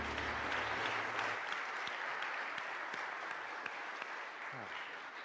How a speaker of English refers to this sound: another round of applause for these youth.